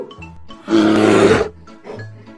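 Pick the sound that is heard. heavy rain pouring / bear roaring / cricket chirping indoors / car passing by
bear roaring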